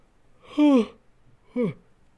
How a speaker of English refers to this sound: I'm yawning because I'm tired, not because it was boring. Okay, I'm just gonna point that out there.